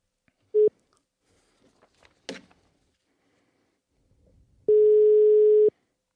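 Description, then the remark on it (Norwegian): The ringback tone of an outgoing phone call sounds twice: a short steady beep, then, after a pause with some faint handling noise, a longer sustained ring about a second long, clear. “Håper vi han tar telefonen.”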